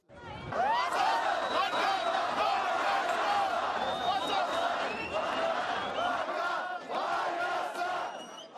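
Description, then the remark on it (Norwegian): A large crowd of protesters in Armenia shouts slogans loudly and continuously on a main street, demanding a free and independent Armenia, many voices chanting and yelling together in a dense, sustained roar with brief rising cries breaking through. “Vi vil ha et fritt og uavhengig Armenia, roper demonstrantene.”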